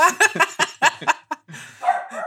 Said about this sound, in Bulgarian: Не знам да колко се чува кучето отзад